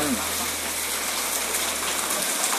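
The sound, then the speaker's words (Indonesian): Light rain falls steadily in a soft, even hiss of scattered drops, continuous throughout with a faint low hum beneath and no one speaking, on a dark late afternoon before Maghrib in Jakarta. “Cerita sore dengan rintik rintik hujan”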